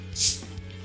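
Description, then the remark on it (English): A short, sharp fizzy hiss bursts out as a cold can of beer is cracked open at the tab, then fades quickly over a faint low background hum. “As I crack open a cold one.”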